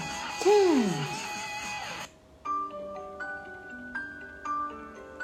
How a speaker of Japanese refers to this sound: はい、えー、音楽を変えさせていただきまして、はい、音楽チェンジ。